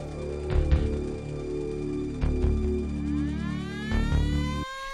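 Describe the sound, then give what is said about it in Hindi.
An alarm siren at the Santulpur asylum, sounding as a new patient arrives, wails continuously with sweeping, rising tones and steady harmonic bands, punctuated by three loud thuds or bangs, then cuts off abruptly near the end. No one speaks. “alarm सुन रहे हैं ना आप लगता है कोई नया पेशेंट पागल खाने में आ रहा है तो चले संतुलपुर के पागल खाने में”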